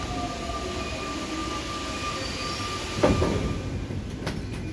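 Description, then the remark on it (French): A metro train rumbles at the platform of metro line 1, its steady low drone carrying faint tonal whines, with a burst of clattering around the middle and a few sharp metallic clicks near the end. “Alors, je suis sur le quai de la ligne 1 et Bon, il y a beaucoup trop de fumeurs sur ce quai, donc ce qu'on va faire, c'est que je vais prendre le prochain métro et on se retrouve juste après.”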